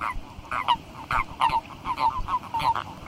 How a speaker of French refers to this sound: Il y a les grenouilles, bien sûr, mais il y a aussi les crapauds et le crapaud commun ou épineux. Alors lui, c'est un petit cri tout faible, fin février. On l'entend que la nuit.